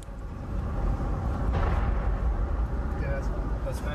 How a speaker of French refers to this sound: Ça tombe là Non, ça va, c'est encore loin. Pas si loin que ça. Il y a un obus qui vient de passer au-dessus de nous ça y est, là, ça commence, à, ouais, ouais, ça commence à, tirer de notre côté, là. Il y en a un qui est passé juste au-dessus de nous